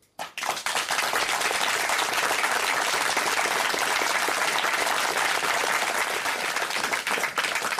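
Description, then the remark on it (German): Sustained applause from an audience at the start of the discussion show Positionen Politik verstehen, a dense, steady wash of many hands clapping that starts abruptly and stays loud for several seconds, with no voices over it. “Ja, vielen Dank für den Applaus.”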